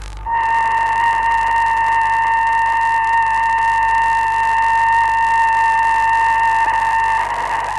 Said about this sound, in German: Sputnik 2 mit seinem Piepen und der Hund Leica war hier angeblich zu hören im SWR 2 Archivradio